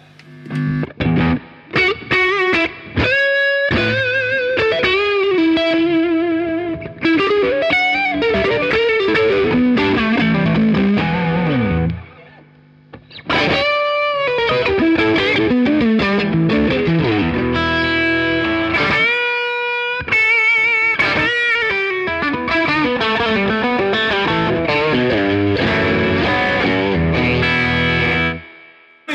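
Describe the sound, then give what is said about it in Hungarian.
Electric guitar through a Tube Screamer overdrive pedal plays loud, gritty chords and riffs for about half a minute, with one brief pause partway through and no voices. “egy picit kevés torzítás lenne nekem”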